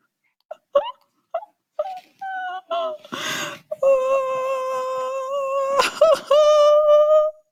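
A woman whimpers close by: several short, pitched whines in a halting rhythm, a rough breathy gasp, then a long drawn-out whining moan with a brief catch near the end.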